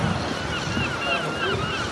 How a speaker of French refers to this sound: Ah, il y a des mouettes tu est à Paris.